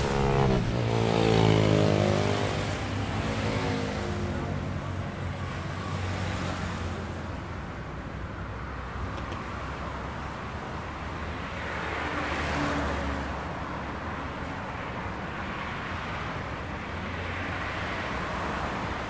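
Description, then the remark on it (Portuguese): Steady city traffic hum with cars passing, one vehicle swelling loud at the start, then a continuous broad wash of road noise with a second pass rising midway. “Sumiu em meio ao trânsito.”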